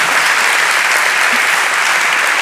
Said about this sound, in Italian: Primo ospite che fuma, un applauso.